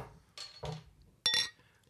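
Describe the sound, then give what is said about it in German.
Glasses of Hefeweizen beer clink together in a toast, a few sharp bright chinks spread over two seconds, the loudest near the end, with no talking. “die heutige Folge wird gesponsert von Hefeweizen. Cheers. Cheers. Prost.”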